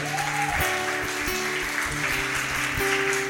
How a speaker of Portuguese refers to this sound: Diga amém. Uh, aplauda Jesus por isso.